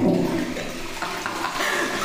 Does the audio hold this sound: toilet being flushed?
yes